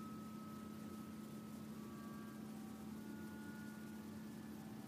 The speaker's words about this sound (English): Following that trail alongside the creek. Watching the creek become wider. Water flows more strongly. sounds of the water getting louder.